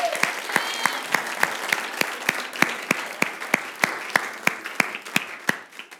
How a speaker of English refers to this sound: Let's give him a round of applause, seriously.